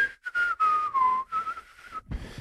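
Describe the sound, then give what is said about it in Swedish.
Someone whistles a casual, meandering tune, a few short wavering phrases with brief breaths between, ending with a soft rustle. “Visslar och tittar upp i taket.”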